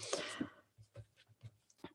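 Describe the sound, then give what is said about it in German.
A pencil scratches across paper resting on the writer's lap, opening with a longer rasping stroke and then a string of short, quick marks with brief pauses between them. “Ich nehme jetzt einen Bleistift. Das funktioniert wohl.”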